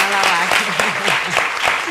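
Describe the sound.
An audience claps steadily, a dense wash of many hands, while a voice speaks faintly underneath the applause.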